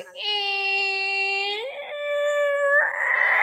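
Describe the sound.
A voice imitates a heavily loaded truck braking: a loud, sustained whining squeal that shifts pitch partway through, then ends in a short breathy hiss like air brakes releasing.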